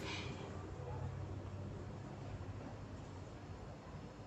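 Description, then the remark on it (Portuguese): A refrigerator hums steadily with a low, continuous drone and a faint hiss on top, holding an even, moderate level throughout with no talking. “A geladeira tá fazendo barulho sozinha.”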